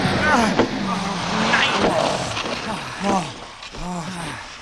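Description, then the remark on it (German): A car skids and brakes hard into a snowbank with wavering tire squeals over a loud rumble of engine and road noise, while voices shout through it. “Ich hab Gas! Bremsen auf der Schneehaufen!”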